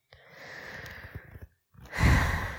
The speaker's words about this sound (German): Na, atmest tief ein und aus.